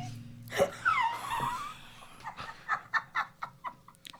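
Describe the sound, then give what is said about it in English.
A person makes a long nasal squeal followed by a rapid series of short, rhythmic snorts, imitating a pig, fairly loud. “Man, why do you act as if you never heard your mom snort before?”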